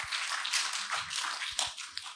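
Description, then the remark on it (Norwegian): A crowd of people clapping their hands together in praise of what Jesus has done, a dense, continuous patter of overlapping claps with a few sharper individual slaps standing out. “Nå kunne du klappa i hendene.”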